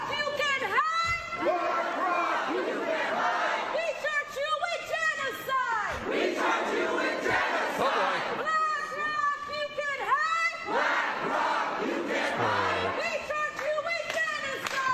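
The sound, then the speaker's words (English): A protest crowd in the BlackRock lobby shouts and chants the same lyric over and over in a loud, continuous din, with bursts of cheering and a steady undercurrent of rhythmic clapping running through the noise. “Getting a little rhythm in there though with the clapping.”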